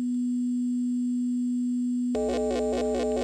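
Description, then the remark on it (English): A steady electronic drone from a modular synthesizer, patched into the even input of a Bang module, hums on a single low pitch, then abruptly shifts into a brighter, rhythmically pulsing tone with stacked harmonics that repeat in quick cycles, clear with no voices. “So you'll hear it drone, and then you'll hear it change, and then you'll hear it change again.”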